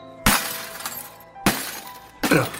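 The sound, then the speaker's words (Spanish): A new mobile phone being smashed: three sharp, loud cracking impacts with bright shattering glass, each crash followed by a short rattling decay, spaced roughly a second apart with no voices. “Pero, qué hace? ¡Mi móvil nuevo!”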